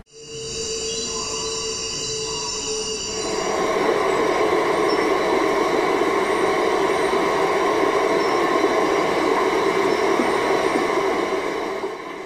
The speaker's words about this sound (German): Aber er ist auch eine große Wasserstraße und was man hört mit den Hydrophonaufnahmen, die ich hier einsetze, ist eben auch dieser ganze große Verkehr, der dort ist und andere Klänge.